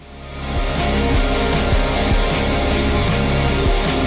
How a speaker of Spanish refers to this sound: En España el programa se llama como ya hemos indicado, La Fuente de la Vida. Y la sintonía suena así.